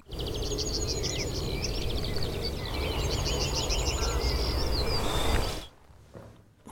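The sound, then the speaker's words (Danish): A yellowhammer sings rapid series of thin, repeated chirping notes, phrase after phrase, over a steady low rumbling outdoor background that cuts away abruptly near the end. “Nu snakker jeg Torsten om, at der er dialekter hos guldspurve, sådan bare regionalt”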